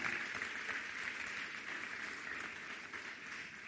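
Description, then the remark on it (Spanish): A church audience applauds in praise of the King of Kings during a sermon, a dense wash of many hands clapping at an even, sustained loudness for the whole stretch, with no individual voices standing out. “Levanta un aplauso al Rey de Reyes.”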